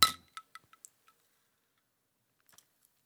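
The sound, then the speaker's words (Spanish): A bright clink of glasses in a toast rings out at the start, followed by a few lighter taps and faint clicks trailing off into quiet, with no one talking. “Vamos a, vamos a brindar.”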